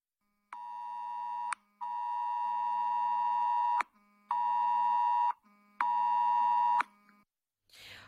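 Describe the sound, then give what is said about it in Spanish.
A mobile phone emergency alert tone, received by residents near Postigo and Loma Larga in Ceuta to inform them of a drill exercise: four loud, harsh electronic tone bursts with a steady pitch, the first and second long, the last two shorter, separated by brief gaps, with no one talking. “Han recibido esta mañana una alerta en sus teléfonos móviles informándoles acerca del ejercicio de simulacro que se está practicando”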